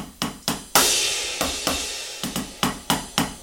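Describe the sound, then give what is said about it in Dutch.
About a dozen sharp strikes on an electronic ride cymbal pad in an uneven rhythm, each with a bright shimmering decay, one hit ringing out longer than the rest, played moving from the bell out toward the edge. Fairly loud, with no talking. “Speel ik op een right backen hè, deze hier ook.”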